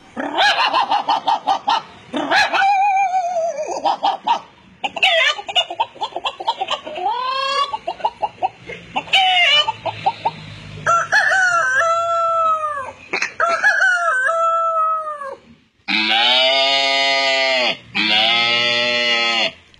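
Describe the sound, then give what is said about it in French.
A South African man's voice imitates animals in quick succession, yelping and barking like a dog, then ending with two long, loud rooster crows, all vivid with no talking. “il est sud-africain et il est trop fort en imitation d'animaux.”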